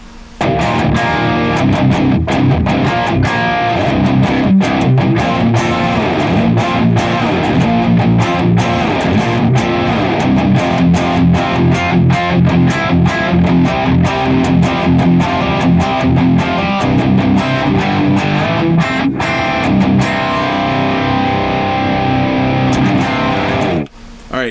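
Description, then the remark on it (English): A heavily distorted electric guitar plays a loud, dense riff with steady rhythmic picking, through a Boss IR 200 and a Neural DSP Archetype Nolly running stereo impulse responses of a Klon Kraken cabinet, sustained for about twenty seconds before cutting off abruptly. No one speaks. “Now, when we stack or combine or A B Y Y, uh, the both the Boss IR 200 and the Neural DSP archetype Nolly running stereo instances of the impulse response of the Klon Kraken.”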